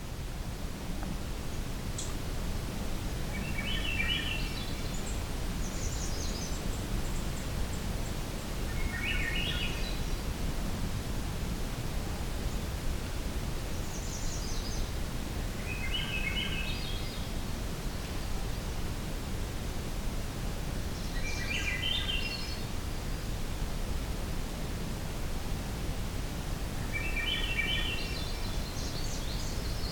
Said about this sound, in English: There's definitely yellow-rumped and American redstart here. I'm trying to listen. I think there might be a magnolia warbler in this mix too.